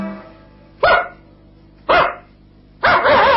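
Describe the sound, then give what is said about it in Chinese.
A dog barks three times at roughly one-second intervals, loud, sharp and mid-pitched. The last bark stretches out longer with a wavering tone, and there's no talking. “狗子是怎么样的叫？”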